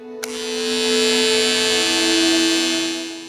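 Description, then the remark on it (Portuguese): Electric hair clippers switch on abruptly and run with a steady, buzzing motor drone full of bright overtones, holding constant for about three seconds with no talking, as a singer sitting in a salon chair shaves her own head. “nesse momento, a própria cantora sentou na cadeira pegou uma máquina e começou a raspar a própria cabeça.”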